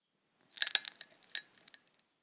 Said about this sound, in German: Nun wird der Tee eingeschenkt. Die Gastgeberin schenkt sich als erstes ein, um an der Färbung zu erkennen, ob der Tee lange genug gezogen hat. Wenn der Kandis knistert, ist der Tee heiß genug.